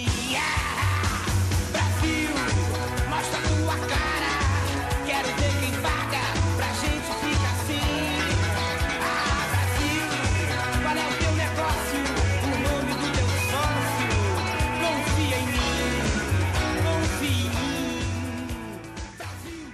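A loud, driving Brazilian rock song from 1988 in Portuguese style, with a thumping bass line, dense distorted guitars and a strained, shouting male lead vocal, playing continuously and easing slightly at the very end.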